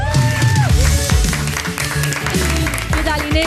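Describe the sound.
An audience in a small park at a live Europa FM show applauds a singer, the queen of the Benidorm Fest, steadily: a dense, loud wash of clapping that holds for the whole few seconds while voices cheer and call out over it.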